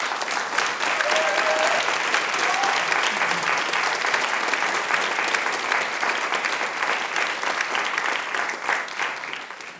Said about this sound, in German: Das größte Willkommen heute Abend gilt aber erst einmal dem Autor. Herzlich willkommen, Dennis Utlu. Applaus